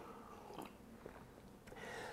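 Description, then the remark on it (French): A quiet sip of a drink infused from a tea bag, with soft slurping and wet mouth sounds over a couple of seconds, followed by a faint swallow; no one speaks. “Donc là, je peux boire ça ici, je vais comme prendre une petite gorgée de café.”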